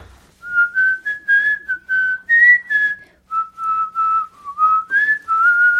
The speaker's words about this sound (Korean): 지난번에 또 … 불러주셨는데 이번에는 또 휘파람으로 맞아. 네, 이렇게까지 제 음악을 좋아해 준 분은 처음입니다. 아, 네. 우리 휘파람은 처음이에요 저도.